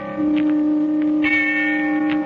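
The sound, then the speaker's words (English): A distant bell rings in a sustained, humming tone with reverberant overtones, a higher chime joining partway through, holding steady before cutting off at the end. No voices. “I closed my eyes, and the sound of a distant bell faded out as I thought.”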